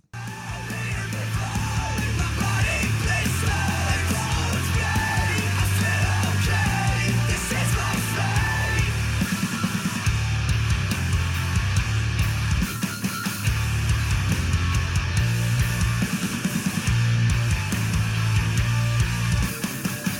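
A loud, dense heavy rock song plays throughout, with a driving low bass line, thick distorted guitars and harsh shouted vocals, steady in volume from start to finish.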